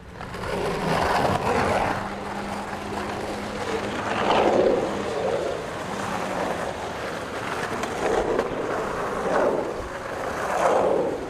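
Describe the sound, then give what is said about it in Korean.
A skateboard rolls steadily in a park, its wheels producing a continuous gritty rumble with recurring scraping swells every couple of seconds, loud and without any talking. “공원에서 보드 타는 소리입니다. 스케이트보드.”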